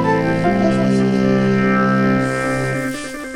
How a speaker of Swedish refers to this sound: nu tar jag mig helt enkelt friheten att köra exakt samma jingel en gång till